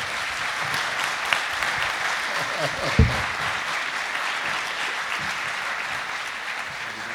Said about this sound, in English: Come on up. Give him a round of applause.